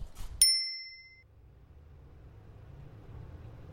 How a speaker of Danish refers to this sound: Så har jeg træsket mig ned til Aarhus Havn på nok verdens mest knirkende cykel.